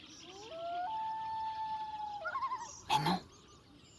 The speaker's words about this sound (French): ce qui vient de briser le silence du lac, c'est un plongeon imbrun. Ce bel oiseau aquatique noir et blanc moucheté sur le dos est en train de communiquer avec la femelle.